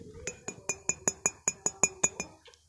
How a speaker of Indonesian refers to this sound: lo mau denger suara apa lagi suara gelas nih suara gelas nih